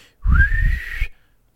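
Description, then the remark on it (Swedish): A single human whistle, fairly loud, sliding smoothly upward and holding a rising tone for about a second, imitating the signature whistle dolphins use as names for one another; low breathy rumble underneath, no talking. “Delfiner har namn för varandra. Visste du det? Ja, de kallar varandra för namn. Ja, de har olika visslingar.”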